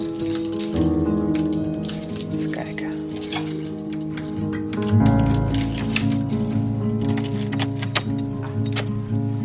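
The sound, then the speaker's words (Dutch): Metallic jangling and clinking as a house key left in a door lock is pulled out, a few sharp rattles over a low, steady background hum. “Ik haal hem expres voor je uit.”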